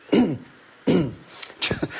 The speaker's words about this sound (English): I did smoke when I was younger, so I I, I'm, I would be concerned about that. I always cough a bit in the morning anyway. Yeah. So I think for the last five weeks, every morning I go.